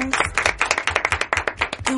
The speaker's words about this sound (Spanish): recibimos con un fuerte aplauso a nuestro segundo premio